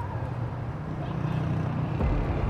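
A low, steady engine rumble from a municipal vehicle that collects beggars, drawing nearer from a distance toward an intersection, growing slightly louder toward the end amid faint background street noise.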